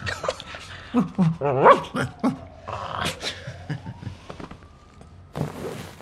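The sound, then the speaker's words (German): A puppy growls and yips in short, excited bursts, with a thin whining tone in between before a final quick flurry of barks. “Du bist so ein Welpe”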